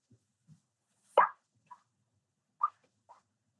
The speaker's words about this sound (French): Et finalement, on dirait, on dirait des gouttes de pluie.